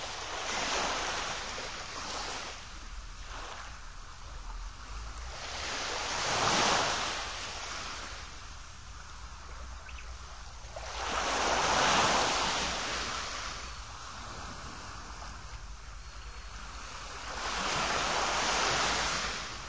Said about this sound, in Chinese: 你正在海滩边度假，你用最舒服的姿势靠在海滩上面，然后随着哗哗的海浪声，你的心情会变得更加平静。